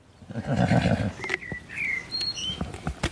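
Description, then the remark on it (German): A horse whinnies, a strong harmonic neigh in the first second, followed by softer snorts and high chirping birdsong over a faint outdoor background. “Die Pferde sind ohne mich zurechtgekommen inzwischen.”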